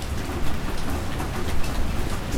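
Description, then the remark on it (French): Steady rain begins falling in Wakabamba in the Andes, with a dense, hissing patter of drops on surfaces, continuous, with a low rumble underneath and no voices. “Voilà, il a commencé à pleuvoir à Wakabamba”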